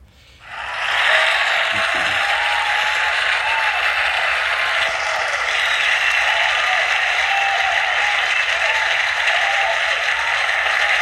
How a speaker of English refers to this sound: Uh, cue the applause.